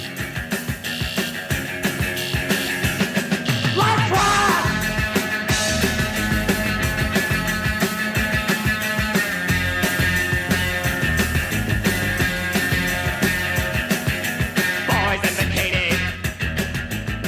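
A loud, driving rock track plays nonstop with dense guitar and pounding drums, and a couple of brief high vocal wails rise above the band.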